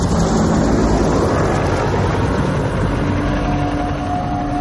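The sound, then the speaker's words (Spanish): A helicopter roars steadily overhead, passing over men checking radiation with a dosimeter, a loud, dense engine and rotor drone that fills the whole moment, with a faint whine rising near the end. No one speaks. “Mira un helicóptero que pasa sobre ellos.”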